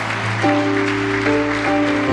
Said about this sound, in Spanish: Eso merece un aplauso. Eso merece un aplauso.